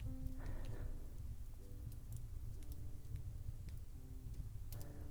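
fireplace fire crackling

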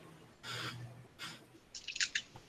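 dice being rolled

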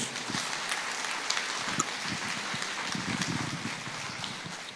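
audience applauding

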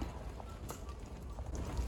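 horse hooves clip-clopping

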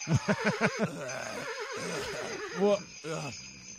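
horse whinnying

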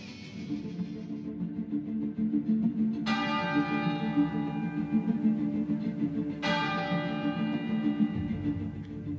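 church bell tolling

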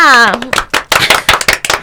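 people clapping hands

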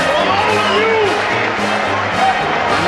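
crowd cheering

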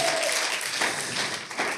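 audience applauding

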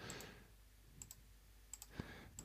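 computer mouse clicking

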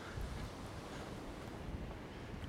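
sea waves and wind

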